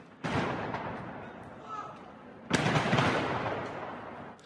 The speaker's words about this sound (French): Une réserve de feux d'artifice a explosé et pris feu proche des habitations.